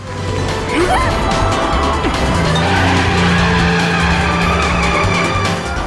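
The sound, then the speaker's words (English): In a video game car chase, engines roar loudly as a car weaves between giant tanker trucks, with tires squealing and skidding in sharp sweeps, dense traffic noise and rumbling vehicles surrounding the action. “So he's weaving between giant, like, tanker trucks and stuff.”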